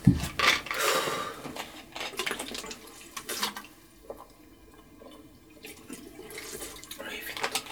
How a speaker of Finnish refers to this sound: Ah, pakko ottaa vettä.